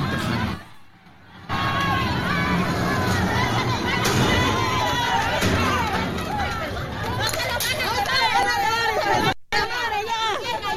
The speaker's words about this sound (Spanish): Esto que escucha ocurrió la madrugada de este jueves. Un enfrentamiento ocurrió en el, en el eh, penal de Acapulco, en, el penal, en un penal en Acapulco.